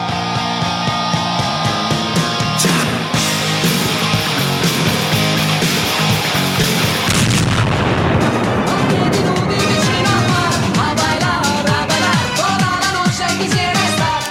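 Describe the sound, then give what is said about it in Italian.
A loud theme jingle of a Radio Rock show plays with no voices: dense, sustained chords for the first half, then a busier, driving section with sharp rhythmic hits through to the end. “E poi ammetto che la fine di questa sigla mi toglie veramente la vita che parte questa roba di a piedi nudi sulla playa, no?”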